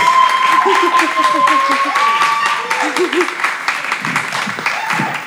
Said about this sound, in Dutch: Ja, dat is wel een applausje waard.